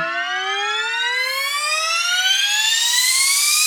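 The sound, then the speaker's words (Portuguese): A loud, continuous rocket-like zoom from a little rocket named Zoom flying away and making the biggest sound it could, a bright harmonic whistle climbing steadily in pitch for a few seconds, with no voices. “E aí o Zoom saiu voando, voando, e ele fez o maior som que ele pôde fazer. Zum!”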